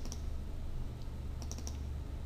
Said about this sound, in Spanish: Si ahora quiero crear o, editar este movie clip animación, pues hago doble clic encima de él.